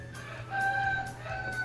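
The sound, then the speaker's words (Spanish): A rooster lets out one long, drawn-out crow, fairly loud, over a steady low background hum. No one speaks. “Eh, y el gallo cantó.”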